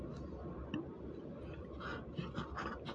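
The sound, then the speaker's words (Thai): A fountain pen nib scratches steadily across paper in short strokes, a soft dry rasp with brief bursts of brighter scraping and no voices. “เสียงกระดาษก็จะค่อนข้างที่จะเซนซิทีฟนะสำหรับบางคนที่แบบว่าไม่ชอบนะฮะในการที่จะโดนเอ่อจะมีอะไรมามาขูดกระดาษเลยลักษณะนี้นะคะซึ่งหลายๆคนเนี่ย ก็จะไม่ชอบแล้วก็รู้สึกว่าแสบแก้วหูนะ”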